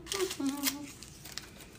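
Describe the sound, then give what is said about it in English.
A powder packet is torn open, crinkling and rustling in a few short, crisp bursts, with a person's voice overlapping the first half, then a lighter crackle near the end. “So I'm gonna open this up.”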